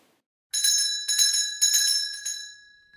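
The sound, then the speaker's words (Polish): A small, bright bell in a small bell tower, rung by pulling a cord, sounds in several quick bursts, each strike leaving a clear shimmering tone that fades slowly, heard alone. “Idzie dziadunio do dzwonnicki i pociąga za snurecek. Dendele, dendele, dendele!”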